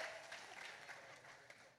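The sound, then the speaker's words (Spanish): A burst of audience applause: many hands clapping in a dense, steady wash of bright, crackly noise, holding at an even level for a couple of seconds with no talking. “Oye, un aplauso, por favor.”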